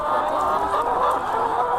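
A dense, steady murmur of many hens clucking and chattering together in a poultry barn at a constant moderate loudness with no pauses.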